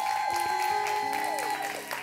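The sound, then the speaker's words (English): A church audience applauds steadily for the Converge men at a Mother's Day service, a dense wash of many hands clapping at even loudness, with sustained musical tones ringing beneath the clapping throughout. “Let's give our Converge men another round of applause.”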